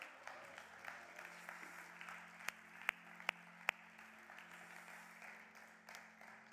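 A crowd applauds steadily for several seconds, a dense wash of clapping with a few sharp, louder individual claps popping out in the middle; no one speaks over it.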